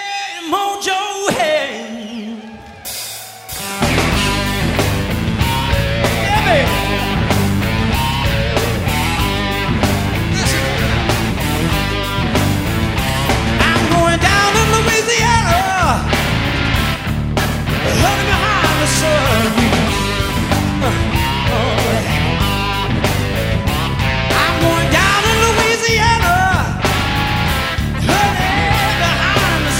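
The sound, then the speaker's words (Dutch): A blues-flavored rock song plays loud and steady, with full band, driving drums and a gritty sung lead vocal, kicking in after a few seconds of quieter intro. “Of nummers gezongen die blues gerelateerd waren. En dit is er één van.”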